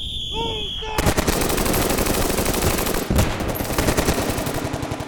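Rapid automatic gunfire from a shooting squad firing at balloons and other targets crackles in dense, continuous bursts after a brief quieter opening with a falling whistle-like tone, loud sharp reports overlapping throughout.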